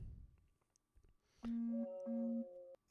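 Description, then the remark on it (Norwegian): A mobile phone vibrates against a hard surface in two loud buzzing pulses over a steady droning hum, then stops abruptly. No one speaks. “Var det bedre nå? Jeg var moden med en brødrist og vibrerte bare.”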